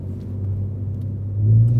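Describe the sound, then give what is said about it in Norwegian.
A deep, steady V6 exhaust rumble from a Ford Ranger Raptor pickup truck idles, swelling louder toward the end as the engine revs slightly, with no voices present. “Ford Range Raptor med V6 og fire (!) forskjellige settinger for eksoslyd er en bil utenom det vanlige.”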